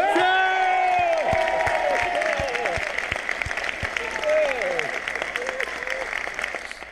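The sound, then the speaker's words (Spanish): An award-ceremony audience bursts into sustained, dense applause for about seven seconds, with excited cheers and rising whoops from several voices over the clapping, easing slightly toward the end. “Recordar, ya viste todos los que te estábamos ahí aplaudiendo y todos teníamos de las pegatinas que nos diste de Por qué Podcast, todos pegados ahí en el pecho.”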